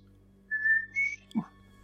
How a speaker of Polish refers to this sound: A ja idę do pokoju i gwizdzę